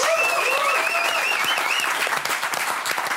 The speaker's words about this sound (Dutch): Aankomende dagen mag een grote applaus voor Caroline van der Plas.